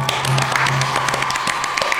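Sustained audience applause, a dense steady wash of many hands clapping at once, with sharper individual claps popping out and a low hum underneath, no talking.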